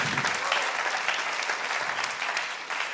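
An audience applauds steadily in praise that God is in charge over Israel, a dense wash of many hands clapping at an even, sustained loudness for the full three seconds, with no voices standing out.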